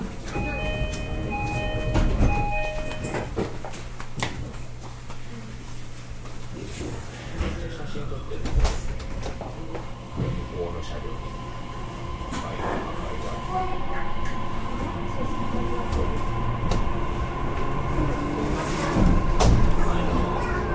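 A JR BEC819 series battery electric train running from Wakamatsu to Orio, heard from on board, a steady low rumble of wheels on rails with occasional clacks, while a thin electric motor whine rises and shifts in pitch as it gathers speed.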